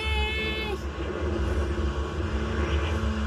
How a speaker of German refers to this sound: Oh, habt ihr das gehört? Der Motor ist gleich tot.